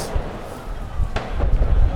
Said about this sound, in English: You can hear the explosions ricocheting around this uh, the whole square where we are. We're in the Place de la Nation. You can see flares being thrown in the air, uh, tear gas everywhere, grenades.